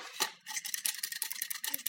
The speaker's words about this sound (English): pour inside the mixture.